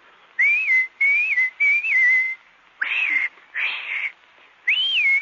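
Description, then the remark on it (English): A person whistles a short, bright tune in several separate phrases with brief pauses between them, showing Pinocchio how to whistle, clear, with no one talking. “And any time you need me, you know, just whistle, like this.”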